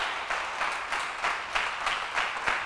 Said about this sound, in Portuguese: Então celebre que você está vivo. Dá um aplauso a Jesus.